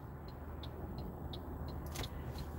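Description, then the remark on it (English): Steady low rumble of a car moving through road traffic, with a continuous engine and road drone and faint regular ticking, like a turn signal, above it; no one speaks. “This traffic's kind of ass, though.”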